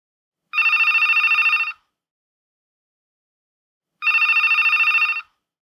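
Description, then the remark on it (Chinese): A telephone rings twice, a call from Dad coming home just after nine in the evening, each ring a bright, trilling electronic burst lasting just over a second, separated by a few seconds of silence. No voices are heard. “这晚九点多，爸爸打电话回来”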